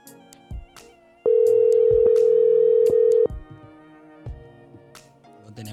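A loud, steady telephone tone holds for about two seconds as a phone call is placed, framed by quieter line noise and a few sharp clicks before and after, with no voices.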